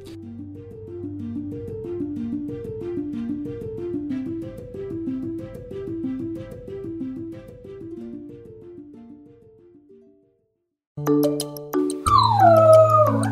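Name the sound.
dog howling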